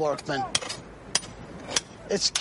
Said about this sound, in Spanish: Esto es un cincel con acabado en punta que era una de las herramientas que usaban los antiguos egipcios. El sonido de los martillazos y el de esta herramienta cortando la piedra eran música para los trabajadores.